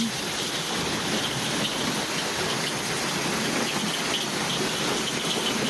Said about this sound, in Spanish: Bueno, la verdad que es una tremenda también locura ver cómo baja el agua y cómo está la calle que no se puede ni salir a, nada. Ahí está sonido ambiente también desde el balcón.